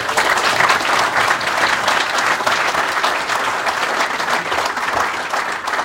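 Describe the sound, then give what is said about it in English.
A crowd claps steadily and loudly for several seconds, a dense wash of many hands applauding with no pauses or voices breaking through, at a fundraising evening for the Wolves Foundation, applauding the speaker's bosses. “So round of applause for our bosses.”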